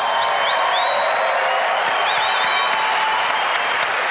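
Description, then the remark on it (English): A large audience at an evening event applauds guests Richard Dawkins and Ricky Gervais steadily throughout, dense clapping with high whistles and occasional whoops cutting through the sustained ovation. “Ladies and gentlemen, please give a huge round of applause for two wonderful guests, two amazing people Richard Dawkins, Ricky Gervais.”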